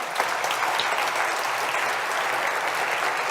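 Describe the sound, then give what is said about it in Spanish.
An audience applauds steadily for a group of young people, a dense wash of many hands clapping at an even, fairly loud level with no pauses, and no voices stand out above it. “Un aplauso, por favor, para estos chavos, ¿no?”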